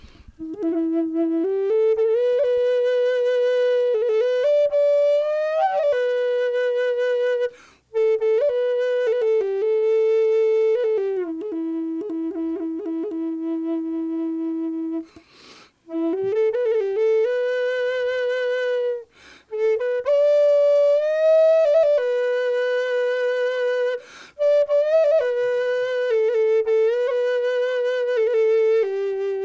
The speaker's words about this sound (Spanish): Y me hizo esta y me encanta el detalle, fíjate que le puse una piedrita. Es una flauta que se usa mucho en América del Norte. Y suena más o menos así.